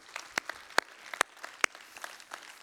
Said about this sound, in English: Yeah, you can clap. That really is a good thing. That's great.